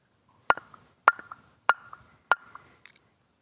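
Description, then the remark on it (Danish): Pieces of freshly felled, wet beech wood knocked together four times in a steady rhythm, each sharp strike leaving a short, dull ring, followed by a faint extra tap. “henter jeg noget, øh, noget vådt træ.”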